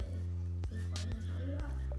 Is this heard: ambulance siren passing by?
no